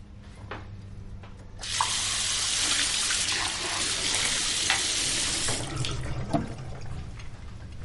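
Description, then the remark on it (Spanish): Two glasses being washed in a sink: a tap gushes in a steady hiss for several seconds, with a few light knocks and clinks before and after, over a low constant hum. No one speaks. “lava dos vasos en el fregadero.”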